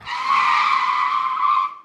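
A car's tires screech in one long, loud skid as the brakes lock, a sustained high squeal lasting under two seconds before cutting off abruptly.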